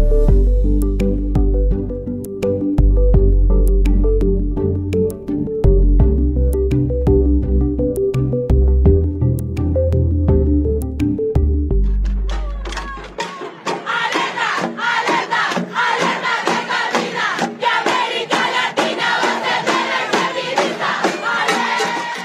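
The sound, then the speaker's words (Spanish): A bold, bass-heavy musical passage gives way after about thirteen seconds to a loud crowd of women chanting the protest slogan 'Alerta que camina', a cry of women's struggle, in a steady, rhythmic cadence with shouts and claps. “Esto que cantan, alerta que camina. Cuéntame, ¿por qué lo dicen?”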